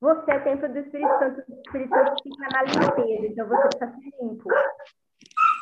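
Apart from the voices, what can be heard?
dog barking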